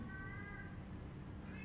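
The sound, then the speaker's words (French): A female cat in heat, which has been circling around the house for about three days, lets out drawn-out, wailing meows, one long call followed by the start of another, sounding faint, with no one talking. “Il y a une chatte en chaleur.”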